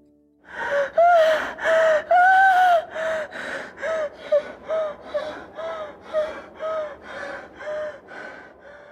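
A woman about to give birth to her first child gasps and pants in a rapid, strained rhythm, with over a dozen loud, voiced breaths in quick succession, with no talking.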